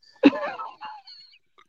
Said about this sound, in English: as you can see, I'm doing some heavy breathing because my nose is stopped up too.